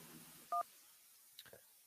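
A single short, loud touch-tone beep from a phone keypad, followed a moment later by a couple of faint clicks as a listener's call connects to a radio call-in show's phone line, over quiet background hiss.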